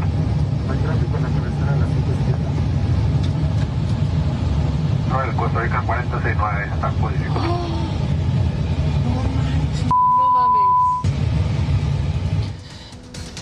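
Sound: airplane engines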